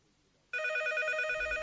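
A telephone starts ringing abruptly after a moment of near silence, a loud, continuous electronic trill from an incoming listener call to the radio call-in segment "Alo Dertleşelim Köşesi", which keeps going to the end with no one speaking.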